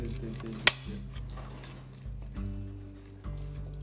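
A single sharp clink of cutlery striking a plate while meat is being cut stands out, surrounded by softer scraping and handling noises over a steady low background hum.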